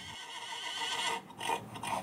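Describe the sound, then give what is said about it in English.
A horse whinnies in a long, quavering neigh, fairly loud, its pitch wavering in pulses before it trails off, at the Appalachian Trainer Face Off in Winfield, West Virginia, an event showcasing rescue and at-risk horses. No one speaks. “The event showcased rescue and at risk horses in hopes of finding them good homes.”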